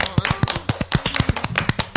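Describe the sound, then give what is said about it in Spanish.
A few people clap their hands in quick, slightly uneven bursts, fairly loud, with no voices over the brief round of applause. “Merece un aplauso.”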